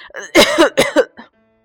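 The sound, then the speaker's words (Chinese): A voice coughs in a quick run of four loud, raspy bursts, with a fainter fifth cough trailing off. The coughs sound hoarse and voiced, as if performed by a storyteller voicing a fire dragon father coughing. “火龙爸爸咳嗽着回答”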